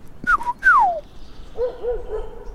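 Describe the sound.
A person whistles a short, fluting birdlike phrase, a couple of bright notes with a swooping downward slide, then softer, lower warbling whistles follow, imitating a golden oriole's song, as one can try with the Cornell Lab of Ornithology's bird-sound recognition app.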